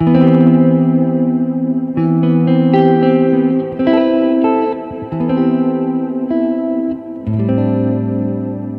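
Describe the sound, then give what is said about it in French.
An electric guitar rings out a sequence of inverted drop-2 chord voicings built on the notes C, G, B and E, each left to sustain with a shimmering, effects-laden tone before shifting to the next voicing, roughly every second or two, with no talking. “Et ça me donne cet accord là qui est super cool.”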